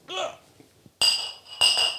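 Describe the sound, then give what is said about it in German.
Two bright glass clinks ring out a moment apart, each with a high, sustained shimmer, just after a brief burst of voices in a toast. “Cheers. Prösterchen. Cheers.”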